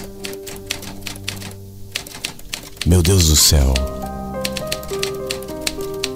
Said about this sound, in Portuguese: Aí ela senta diante da máquina de escrever, coloca o papel e começa.